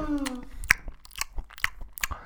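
Wet, crunchy chewing right up against the microphone, with irregular bursts of crackling bites and smacking, starting over a brief tonal hum before settling into steady close mouth noises.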